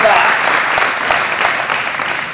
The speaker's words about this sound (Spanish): Dices amén. Dale fuerte al aplauso a Cristo Jesús.